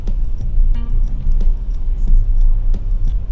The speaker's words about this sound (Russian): И я бы поговорил про пробки. В принципе, в пробке стоишь, и неплохая идея поговорить про пробки.